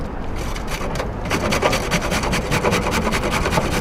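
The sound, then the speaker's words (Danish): Rapid, rhythmic rasping of a huge handful of carrots, 94 in all, being grated on an IKEA box grater, steady, with quick repeated strokes that speed up and grow louder partway through. No voices. “Ja, og vi kan jo lige høre, hvordan sådan en øh, gulerodsrive-performance egentlig lyder.”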